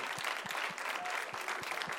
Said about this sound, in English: Why don't we give the Lord a great hand clap in this place? Praise God.